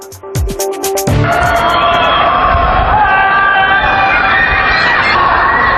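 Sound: people screaming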